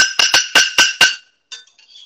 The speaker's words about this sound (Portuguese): Como vocês podem ouvir, a gente estão jantando aí, né? Vocês podem ver pelo barulho de prato.